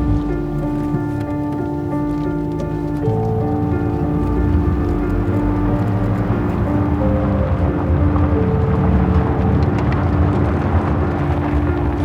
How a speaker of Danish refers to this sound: Så kører jeg forvirret rundt med nedrullede vinduer, som om jeg kan lugte mig frem. Men det er nu mest, fordi sådan en skov lugter så eventyrligt.